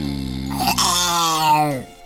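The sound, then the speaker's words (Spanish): A man's voice imitates a cheetah roar: one loud, sustained growling cry lasting about two seconds, holding steady before dropping off abruptly at the end. “Deja y le echo un rugido de guepardo.”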